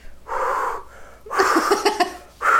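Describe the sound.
A voice imitates deep, heavy breathing: a long breathy inhale, then a rougher, strained, wheezy exhale with voiced edges, and the start of another breath. It is fairly loud, with no talking.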